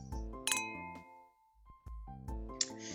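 Bright glass clinks ring out in a short cluster, several quick taps with lingering tones, like glasses touched together in a toast, fairly clear with no talking.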